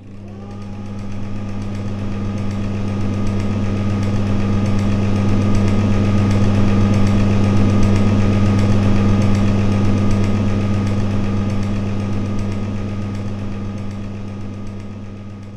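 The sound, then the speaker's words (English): A tram passes by with a deep, steady droning hum and a rumbling undertone that swells gradually, holds loud for several seconds, then eases off again. No voices. “Erin topples over him, and the tram zooms past.”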